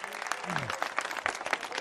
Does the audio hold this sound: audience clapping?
yes